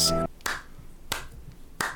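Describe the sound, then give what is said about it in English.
Three slow, sharp hand claps spaced a little over half a second apart, each a crisp, bright smack, following the brief tail of a tonal sound at the very start. “Man, I was clapping because that was your best radio voice.”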